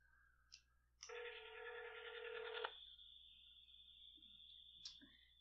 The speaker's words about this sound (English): You want to try and get him on the phone? Just give him a call.